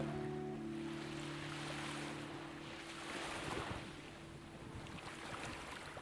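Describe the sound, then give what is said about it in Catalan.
A steady wash of ocean waves rolling in soft, continuous swells, with a low constant hum beneath and a faint breezy hiss; no one speaks. “Et sosté la força del mar, de l'aigua.”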